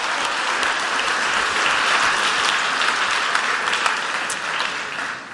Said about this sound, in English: There we go. Let's put our hands together. All right.